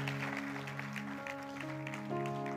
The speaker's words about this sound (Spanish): Si tú lo quieres, dale fuerte el aplauso, Señor, y ponte de pie ahí donde estás.